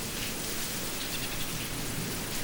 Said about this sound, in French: T'es sérieux Il pleut comme vache qui pisse, Non mais...